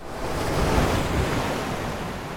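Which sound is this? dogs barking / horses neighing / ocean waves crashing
ocean waves crashing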